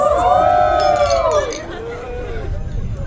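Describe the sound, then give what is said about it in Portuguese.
Several glasses clink together in a toast, their bright ringing tones lingering and fading over about a second and a half, with a lively crowd murmuring and chattering underneath. “Por isso e muito mais, eu peço um brinde a mim mesma, que tô operando para criar tudo isso há mais de seis meses.”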